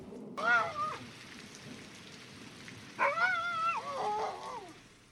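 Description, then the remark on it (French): A pack of dogs pursuing people, not far off, howls and yelps in two bursts, a short one and then a longer chorus of overlapping, wavering howls, all over a steady rain-like hiss. “Ah, je crois qu'elle a envoyé ses hordes de chiens là, à, nos, à notre trousses C'est horrible.”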